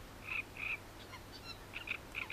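A great reed warbler sings alone, a run of harsh, croaking chirps repeated in a jerky rhythm with brief gaps, moderately loud.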